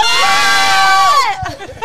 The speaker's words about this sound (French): Allez-y, on crie bien fort, que ce soit bien filmé et que ça soit retransmis au mariage.